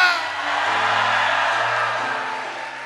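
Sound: audience shouting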